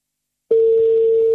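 A steady, mid-pitched telephone ringing tone as a host calls a listener begins abruptly after a brief silence and holds unbroken at an even, fairly loud level until the end, with no voices present.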